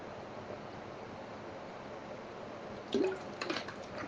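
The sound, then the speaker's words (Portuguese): Someone takes a sip of water, with a couple of brief swallowing sounds near the end after a few seconds of quiet background hiss. “Vou beber uma água aqui.”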